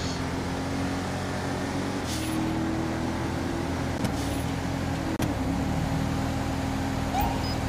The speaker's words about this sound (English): Is that car really going? It's going 78. Good grief.